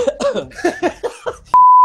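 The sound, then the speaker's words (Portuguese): A series of halting, voiced gasps builds toward a sneeze, then a steady, loud, high-pitched censor beep cuts in abruptly and holds to the end, covering the sneeze. “Vai entrar um pi agora.”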